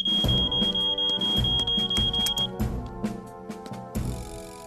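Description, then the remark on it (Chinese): An alarm at Dilys's supermarket, where a fire was reported, emits a steady, piercing high-pitched tone for a couple of seconds before cutting off, amid loud clattering, knocking and rumbling noises that continue afterward. “嗯，我不是侦探，但我敢说这个警报器不是自己响的。”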